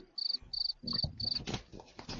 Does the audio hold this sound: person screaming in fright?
no